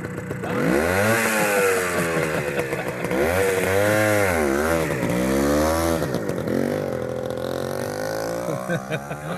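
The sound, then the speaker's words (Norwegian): A moped-like engine noise, almost certainly imitated by a voice, buzzes continuously for about nine seconds, its pitch swooping up and down in repeated revs. It's loud, with no other talk. “Få høre på mopeden, da.”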